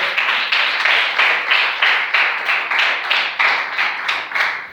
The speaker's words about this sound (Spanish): Denle el aplauso a Jesús esta noche.